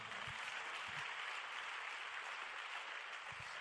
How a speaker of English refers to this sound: I think it's a good place to clap your hands right now.